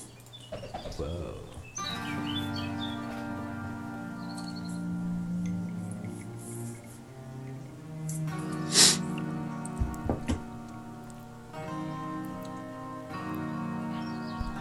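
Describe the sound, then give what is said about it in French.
A short, bright intro jingle with sustained, chirpy melodic tones plays steadily for several seconds, briefly broken by a sharp burst partway through before the tune resumes. “On miaou pas pendant le jingle.”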